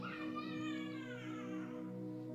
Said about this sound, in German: Habt ihr das Kind gehört gerade?